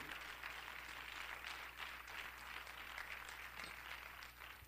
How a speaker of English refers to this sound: Clap your hands to the Lord once again.